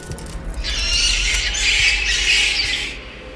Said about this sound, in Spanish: Sin embargo, la trampa se agitó con rabiosos rebotes contra el piso, golpeaban las paredes metálicas y su furia y su desventura fue transformándose en un chirrido afligido.